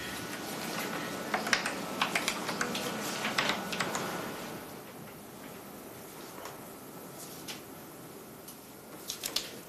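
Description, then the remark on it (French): Keys clatter on a Minitel terminal keyboard in irregular bursts as someone looks up a taxi's phone number, busy for the first few seconds, pausing, then picking up again near the end over a steady low hum. “Avec le Minitel, on peut euh, éviter d'avoir des annuaires papier.”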